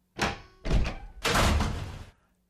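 A door is handled close by: a couple of quick knocking thuds, then a longer rattling rush of noise as it swings and bangs shut, all without any talking.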